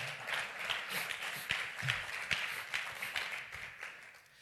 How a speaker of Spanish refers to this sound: Dale un aplauso al Señor.